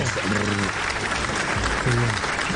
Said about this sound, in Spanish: Oiga, qué buena historia esta, sí. Un aplauso, claro.